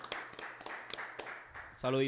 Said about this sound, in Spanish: Oye, un aplauso, puñeta, vamos a activarnos, vamos a activarnos.